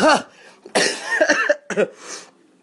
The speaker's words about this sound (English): I just coughed. So it, it was like,